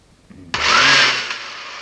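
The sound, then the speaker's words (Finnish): An electric power drill abruptly switches on and runs with a loud, steady whirring motor noise, holding the same pitch for over a second after a brief quiet start. “osti täsmälleensä tällaisen porakoneen.”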